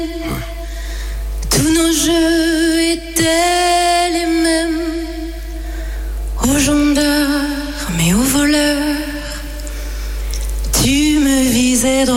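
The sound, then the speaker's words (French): A solo singer performs the opening of a slow, melodic song on the TV show The Voice, holding long notes with vibrato and sliding pitch between phrases, the voice fairly loud, with a steady low hum in the background. “On va passer un petit extrait du début de ta performance qui était absolument magnifique.”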